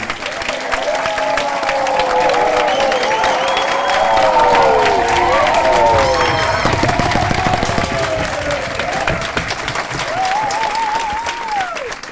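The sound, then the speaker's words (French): A crowd bursts into sustained applause for the students and associations present, mixed with cheering and whistles, a dense, loud wash of clapping that holds steady for the whole stretch, with a few high whoops rising above it. “J'aimerais que tout le monde ici essaye d'applaudir pour les étudiants ici présents et toutes ces associations réunies.”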